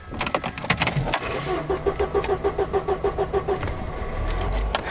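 vehicle, car driving

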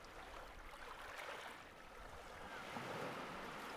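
nature, sea waves

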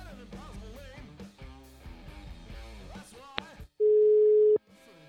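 signal or alarm, telephone dial tone

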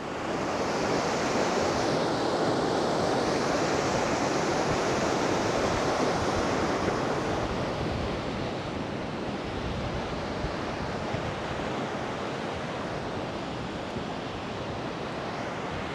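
nature, rushing river water

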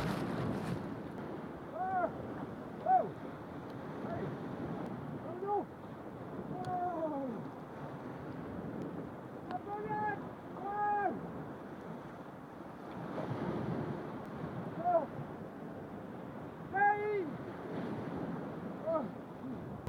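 nature, sea waves

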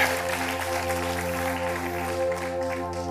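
crowd, audience applauding

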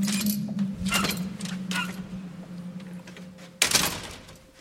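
household object, door being opened

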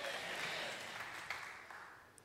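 crowd, audience clapping hands

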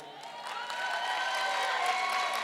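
crowd, audience clapping

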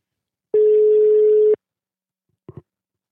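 signal or alarm, telephone ringing tone

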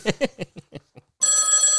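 household object, telephone ringing

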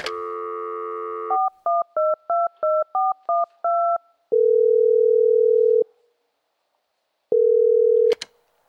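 signal or alarm, landline telephone dial tone

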